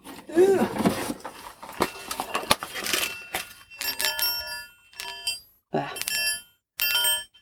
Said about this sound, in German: Diese Qigong-Kugeln, da habe ich auch verschiedene Modelle von, weil die halt unterschiedlich klingen.